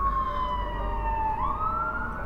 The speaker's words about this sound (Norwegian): Sitter på bussen. Kjører nedover, da. Eh, mot Sagene og nedover mot Sankthanshaugen, og så kommer det et voldsomt kjør av ambulanser.